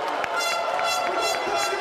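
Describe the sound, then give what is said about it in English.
Air horns blare in a loud, continuous, brassy tone for the whole moment, with quick rhythmic pulses cutting through the noisy background. “They're firing off air horns and shit in there.”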